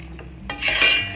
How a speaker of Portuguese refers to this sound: Vocês tampa, tá? Mas antes de tampar, dá uma mexidinha para o alho e o azeite misturarem e o frango também, né?